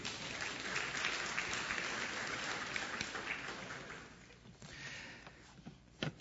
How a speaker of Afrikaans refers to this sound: Geef hulle 'n lekker hande klap toe.